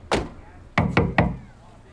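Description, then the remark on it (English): Four sharp knocks on an apartment door in a housing complex in Stockton: a single rap, a short pause, then three quick raps in a row, fairly loud with a bit of echo. “We give it a few more knocks and wait.”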